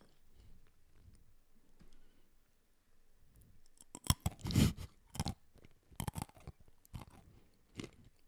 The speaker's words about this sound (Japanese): 俺も アーモンド食べて